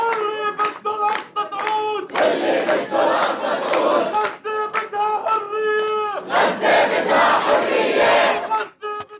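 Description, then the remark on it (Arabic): A large crowd of protesters chants loudly in unison in the streets of a Palestinian city in the West Bank, during a strike in solidarity with Gaza, voices rising and falling in rhythmic bursts, with shouts and scattered clapping mixed in. No single speaker stands out. “لم يخرج مواطني الضفة الغربية من منازلهم اليوم إلا لنقاط التماسي مع المحتل أو في سبيل المشاركة بالاحتجاجات والاعتصامات في شوارع المدن الفلسطينية.”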